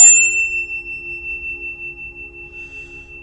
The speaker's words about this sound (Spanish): también vamos a tocar el sonido del diapasón, porque a ellos les encantan estos sonidos.